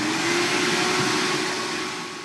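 A vacuum cleaner runs steadily and loudly, a constant whooshing roar with a low motor hum that fades slightly toward the end. No one speaks.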